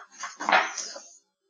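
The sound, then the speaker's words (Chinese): A bunch of keys drops and clatters, a short bright metallic jingle lasting about a second before cutting to silence, with no voices. “哎呀，把把把钥匙吐走了。 呀。掉下去。”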